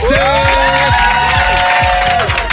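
A large crowd cheers loudly and continuously, with high-pitched whoops and shouts rising above a dense roar of noise that holds steady throughout.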